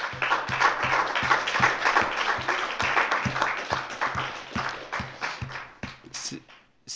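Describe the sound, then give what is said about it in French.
A crowd bursts into sustained applause for a pupil who spoke about fighting bullying at school, dense and lively, with a steady rhythmic thumping underneath like stamping or beat-clapping, before it thins out and fades at the end. “On peut tous vous applaudir bien fort pour ça.”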